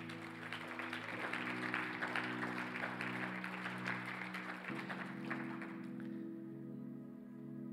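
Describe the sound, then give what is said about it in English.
An audience claps together for the Lord in a dense, steady burst of applause while sustained organ chords hold underneath, changing pitch twice before the clapping thins out toward the end. “Let's just give the Lord a hand clap today.”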